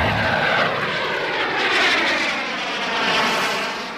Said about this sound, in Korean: 비행기 소리 한번 더 들을까요? 네, 소리.